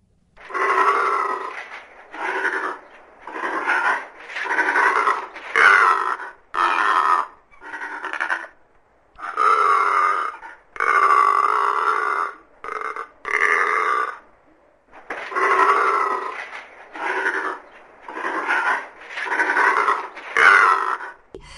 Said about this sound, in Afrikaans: En nou meer oor 'n spesies wat net op die Afrika kontinent voorkom. Dis die sekretarisvoël. Kom ons luister eers na sy roep en dan meer oor hierdie besondere voël.